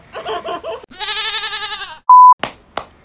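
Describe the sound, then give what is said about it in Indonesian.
Two wavering sheep-like bleats in quick succession, the second long and quavering, followed by a short electronic beep and a couple of sharp knocks. No talking. “Kawanan domba kali. Kawanan kambing.”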